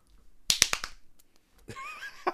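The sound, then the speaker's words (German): A rapid burst of four sharp hand claps in under half a second, loud and crisp, followed after a short pause by a brief high, wavering sound. “Ich, da, ey, ich kann wirklich schnell klatschen.”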